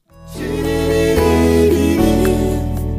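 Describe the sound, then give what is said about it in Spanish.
A female vocalist sings a Spanish-language song, a 2013 recording, holding a wavering, sustained melodic line over full, steady instrumental accompaniment that swells in quickly and stays loud throughout. “Ojo, es ella cantando en español y además lo hace muy bien acompañada.”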